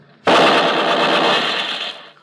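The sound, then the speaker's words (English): A sustained burst of rapid machine-gun fire, fired from a truck at an approaching creature blocking traffic on the road, erupts suddenly and rattles loudly for nearly two seconds, a dense continuous clatter that cuts off abruptly, with no talking over it. “Get on that gun. Give it a blast.”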